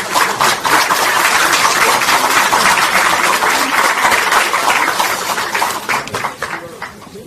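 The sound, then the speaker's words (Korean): Lawmakers at the Democratic Party of Korea's 79th general meeting of lawmakers applaud steadily and loudly for several seconds as party leader Lee Jae-myung is introduced to speak, a dense crackle of many hands clapping at once that gradually thins out and fades near the end. “뜨거운 박수 많이 필요합니다”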